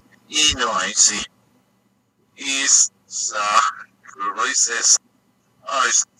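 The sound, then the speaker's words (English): A recorded voice played in reverse speaks in short, garbled bursts, five clear phrases separated by brief pauses, with an odd, warbling, unintelligible quality, fairly loud. “Now I play the the reversed one.”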